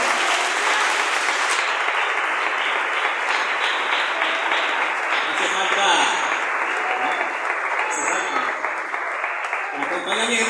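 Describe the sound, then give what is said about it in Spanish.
A church audience at a worship service applauds in God's name, steadily for about ten seconds: a dense, loud wash of clapping with a few voices calling out over it. “A su nombre, den un aplauso que el hermano.”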